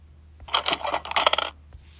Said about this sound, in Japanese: はあふうと深いため息をついて刑事さんは一つのスマートフォンを僕の前に置いた